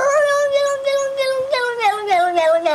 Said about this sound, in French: Donc par exemple les mêmes, genre le chat qui fait...